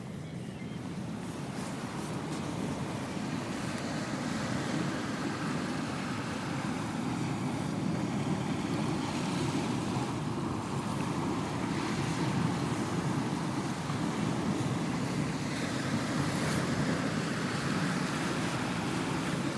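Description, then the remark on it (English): Waves wash steadily against the water's edge of a beach with rocks covered in brown wrack seaweed, in a continuous low roar, mixed with wind rumble and no distinct individual breaks, with no voices present. “So we've now come down to the water's edge.”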